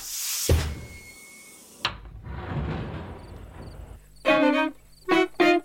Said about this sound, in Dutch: Open die deur.